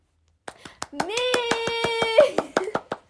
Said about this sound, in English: Guess who won gold key? Me? Oh my god! I forgot for a second. Woo! I'm clapping for myself.